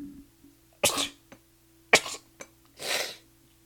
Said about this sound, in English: I'm going to sneeze again. I'm sorry.